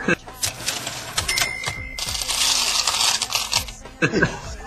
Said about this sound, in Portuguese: Editor, por favor, coloque o barulho, o barulho da caixa registradora, por favor.